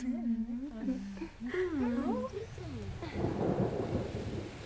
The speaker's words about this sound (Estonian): oktoobri eelviimasel reedel on Eestimaa tormist räsitud. ka Tartus on langenud teedele puid ja neli tuhat majapidamist on jäänud elektrita. tänavatel vedeleb oksaräsu ja ratturit tervitab ning paneb proovile läbilõikav vastutuul.